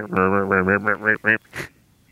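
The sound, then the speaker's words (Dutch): Gadwall ducks give a quick run of about six nasal, croaking calls, fairly loud and rhythmic, followed by a short breathy burst and then quiet. “Vooral die mannetjes krakende, dat zijn echt eenden die zijn altijd een beetje ondergewaardeerd.”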